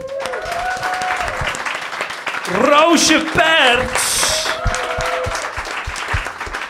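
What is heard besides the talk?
audience applause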